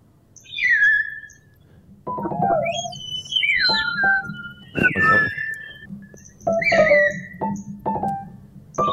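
A myna bird whistles a series of varied, swooping calls, rising and falling in pitch with sharp clicks between phrases, loud and clear over a low steady hum.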